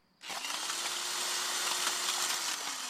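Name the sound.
power drill whirring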